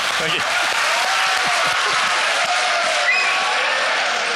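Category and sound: crowd, someone applauding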